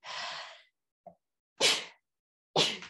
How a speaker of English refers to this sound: I'm going to sneeze real quick.